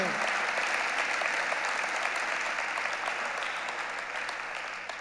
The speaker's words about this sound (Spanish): Démosle un aplauso a esta gente creativa que nos motiva de manera diferente.